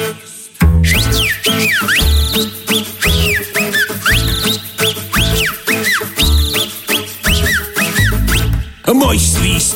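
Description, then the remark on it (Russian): Loud, showy human whistling swoops up and down in quick melodic glides over a full musical accompaniment with a pulsing bass, carrying on almost without pause throughout. “Вы посмотрите, как я мускулист, и слушайте все а мой художественный свист.”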